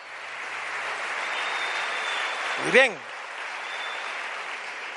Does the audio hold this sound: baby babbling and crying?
no